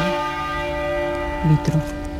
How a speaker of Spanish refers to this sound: Sí, eh, el doble de campanas que va mucho más ralentizado, como apuntaba Yuyo.